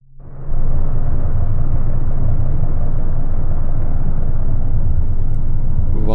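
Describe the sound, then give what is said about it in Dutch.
A steady, dense low-frequency rumble of distant ship engines carried underwater, droning continuously with a mechanical throb and no voices. “Dat zijn uh, ja, scheepsmotoren op relatief grote afstand.”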